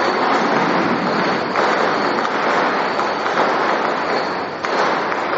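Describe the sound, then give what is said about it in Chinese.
A long string of firecrackers goes off nonstop, a dense, loud crackling roar that barely varies for the whole stretch, with no one speaking. “这个一直在放鞭炮”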